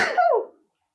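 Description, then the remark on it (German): A single short sneeze, a sharp breathy burst followed by a brief voiced tail that falls in pitch and fades within about half a second, with no talking. “war ein Niesen.”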